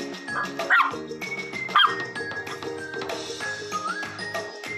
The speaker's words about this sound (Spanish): y este es mi perro Rocky.